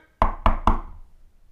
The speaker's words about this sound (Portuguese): Quem está a bater à porta? esquilo. É o esquilo.